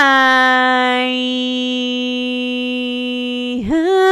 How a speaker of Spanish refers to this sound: Como que es alarma sísmica.